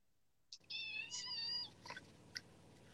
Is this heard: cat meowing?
yes